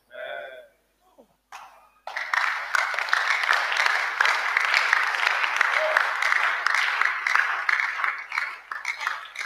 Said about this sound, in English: I see those of faith, they are clapping well. Those who have faith. Even the crapping you are crapping, it is what? I said, it is what? It's a ministry.